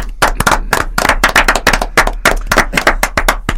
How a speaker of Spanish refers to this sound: ¿A quién vamos a aplaudir? ¿Quién estaba detrás del seudónimo Dardo?